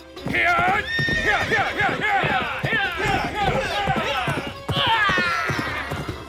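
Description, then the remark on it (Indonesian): A ridden horse whinnies loudly and repeatedly over the fast, rhythmic clatter of galloping hooves as it struggles to leap over a trench, intense throughout, with several sharp neighs rising above the drumming footfalls. “Kuda yang ditunggangi Ikrimah dengan susah payah berhasil melompati parit”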